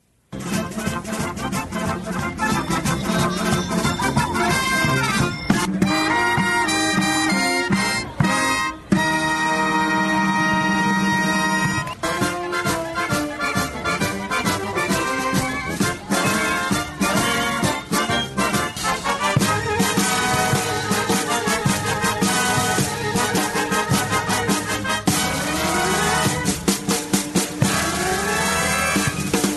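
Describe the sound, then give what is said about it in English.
The original Disneyland band plays lively marching-style music at its very last performance on July 16th, 2015, in a montage: bold horn-like tones over a steady rhythmic beat, loud and continuous throughout with no one talking. “So the band actually still does exist, the Disneyland band.”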